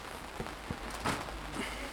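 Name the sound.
light rain falling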